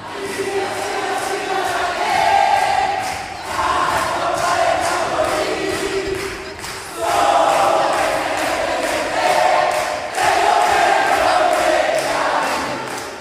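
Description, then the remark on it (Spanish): A crowd of supporters from the cultural magazines, led by la Grata Poderosa, chants together at the Salón Parodi of the Congress in loud, rhythmic phrases, their voices swelling in repeated waves with brief dips between lines, with no single speaker standing out. “y para que veamos cómo empalma esto con el público que se había reunido allí, escuchá lo que cantaban las barras de las revistas culturales con batuta de la Grata Poderosa.”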